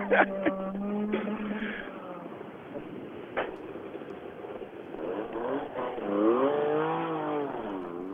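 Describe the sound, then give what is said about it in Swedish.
An old rally car engine revs hard, its rising and falling harmonic whine sweeping up and down through gear changes, with sharp pops and a loud, raspy roar throughout. “Ja, det är fantastiskt ljud från de här gamla rallybilarna.”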